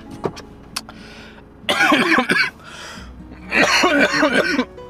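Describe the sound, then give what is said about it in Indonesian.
Two loud bursts of coughing from a person in a car, each a rapid cluster of harsh coughs, separated by a short pause, with a low steady engine hum underneath. “anyway, ah si batuk sorry lo harus denger itu karena gue nggak bisa ngedit gue nggak punya waktu”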